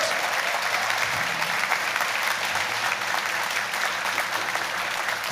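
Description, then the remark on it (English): Sustained applause from a sizable audience for Isy Suttie, a dense, steady wash of clapping that stays loud and even throughout, with a faint murmur of the crowd underneath. “Ladies and gentlemen, please give a massive round of applause.”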